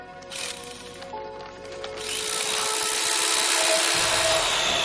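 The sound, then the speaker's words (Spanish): An electric carving knife buzzes steadily as it slices through a turkey, a continuous whirring motor hum with rough, scraping texture that grows louder and fuller partway through. “Con ayuda de un cuchillo eléctrico, Mike comienza a cortar el pavo”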